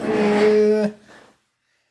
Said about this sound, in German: Was war das denn? Das war mein Stuhl, der sich bewegt hat, weil er hat Räder. Das klang nicht gut. Das liegt daran, dass er sehr alte Räder hat, die sich, glaube ich, auch zum wesentlichen Großteil nicht mehr, mehr äh, drehen.